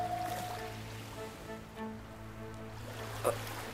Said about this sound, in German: Ich kann die Wellen unter uns noch ganz klar hören. Da! Es klingt schon etwas lauter.